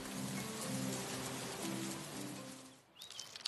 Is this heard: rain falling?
yes